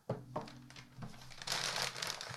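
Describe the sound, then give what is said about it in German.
Gift wrapping paper is crinkled and crumpled, a dense burst of crackling rustles that grows fuller and busier toward the end, with no one speaking. “Nicht, verknü nicht zerknüllen.”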